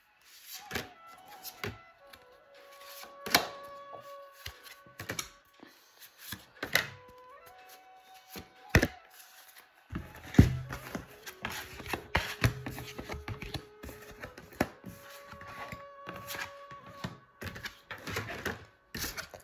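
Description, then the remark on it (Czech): Tarot cards being shuffled for a tarot reading about the year 2023: crisp, papery clicks and riffles, scattered at first, then a denser, steadier flurry in the second half, with soft sustained musical tones underneath. “A já už se dívám na vaši fotku, míchám u toho karty a my se spolu podíváme, co nám Tarot řekne o roce 2023 plus leden 2024.”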